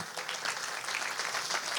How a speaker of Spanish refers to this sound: ¿Cuánto le dan un aplauso al Señor esta mañana?